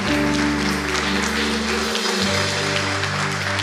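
An audience applauds steadily for several seconds, giving a loud applause to the Lord, a dense wash of clapping over sustained low instrumental chords that shift pitch partway through.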